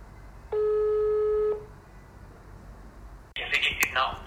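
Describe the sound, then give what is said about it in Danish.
A single steady telephone tone sounds for about a second over a faint line hiss while calling back the person who had phoned, then after a pause a voice begins speaking on the line. “i hvert fald, at jeg vil prøve at ringe op til den, der har ringet.”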